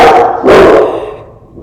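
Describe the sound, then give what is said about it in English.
A dog barks twice in quick succession, loud, each sharp bark trailing off into a brief fading echo with no voices present. “Okay, there's dogs. There are dogs.”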